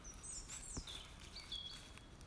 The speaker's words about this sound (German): Urschönes Vögelgezwitschern.